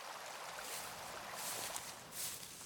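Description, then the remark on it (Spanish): A small river flows steadily with a continuous, bright rushing and hiss, swelling slightly in a few spots, heard beside a walking path about 100 metres from a noisy road, with no traffic noise. No one speaks. “Ahora podemos escuchar un hermoso sonido es el agua de un pequeño río.”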